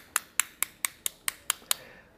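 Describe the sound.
Eight sharp, bright taps in a steady, quick rhythm, mimicking a sculptor's small hammer chipping at stone, with no talking underneath.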